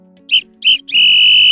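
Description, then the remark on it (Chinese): A referee's whistle ends the second half of a football match: two short, sharp blasts followed by one long, sustained shrill note, loud and high-pitched, with no voices present. “裁判员吹哨，下半场比赛结束”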